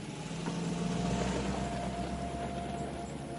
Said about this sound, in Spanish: Por la tarde la vecina se aleja en su coche.